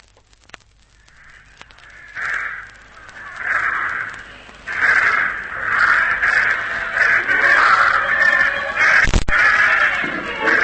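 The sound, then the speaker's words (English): A flock of crows caws loudly and continuously in overlapping harsh calls as the birds are sent up to take flight, building after a quiet start, with a single sharp thud near the end and no voices. “I can be waiting ready to sprint the moment the birds rise.”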